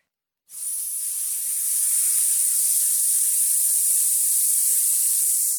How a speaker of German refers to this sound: Und der dritte Step wäre einfach auf ein S auszuatmen und den Bauchnabel ganz langsam mit der Hand Richtung Wirbelsäule zu führen. Ich mache das gerade mal vor. Also ich atme ein und auf ein S aus.